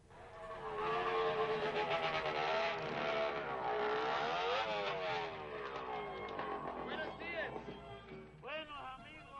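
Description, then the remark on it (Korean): A motorcycle from the film Easy Rider, ridden across America in 1969, revs loudly, its engine pitch rising and falling as it rides along, ending with a couple of sharp, quick throttle blips. “이번에는 69년에 큰 뜻을 품고 미국 횡단에 나선 두 젊은이 오토바이입니다.”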